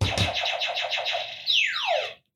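A quiz buzzer goes off: a loud, close electronic sound effect with a quick warbling pulse, then a falling swoop that cuts off into silence. No one speaks.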